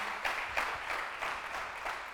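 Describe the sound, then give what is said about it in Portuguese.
A crowd applauds, a steady wash of clapping with slight rhythmic surges roughly every half second, fairly soft and with no voices over it. “Dá um aplauso aí para você ficar ligado.”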